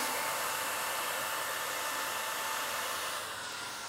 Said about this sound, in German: werde ich ihr die Haare aus dem Gesicht föhnen.